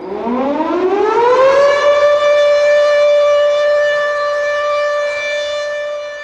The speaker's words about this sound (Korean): 시내 전체에 사이렌이 울리고 안내 방송이 나왔다.